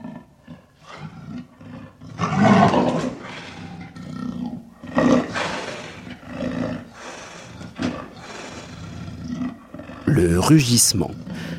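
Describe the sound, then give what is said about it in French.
A leopard roars in several loud, rasping bursts spaced a few seconds apart, with a lower rumbling growl carrying between them, prominent. “de léopard, comme celui-ci,”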